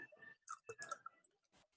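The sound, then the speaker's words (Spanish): Someone takes a quiet sip of beer, with soft slurping, a swallow and a few wet mouth clicks and smacks over less than two seconds. “Me voy a echar otra, otra, otro traguito más.”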